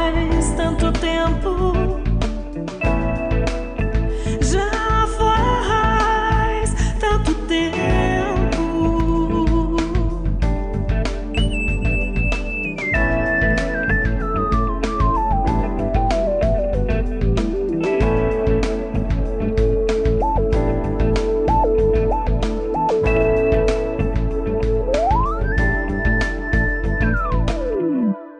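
A loud, steady song with a full band, sung vocals over a strong bass and rhythm, with gliding synth-like tones sliding down in the middle and rising near the end.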